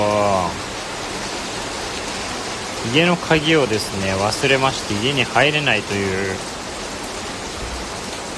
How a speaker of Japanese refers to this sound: 今状況でなんと豪雨が降ってきましたついてないな